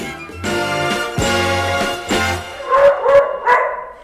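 A dog barks repeatedly at the Clever Dog Lab of the Vetmeduni in Vienna: several drawn-out, tonal barks followed by a quick cluster of sharper, higher yips, with no talking.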